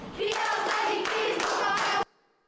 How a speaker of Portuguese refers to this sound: Palmas para essa criança mesmo, ela merece. Faz muito mais do que muitos adultos, não é verdade?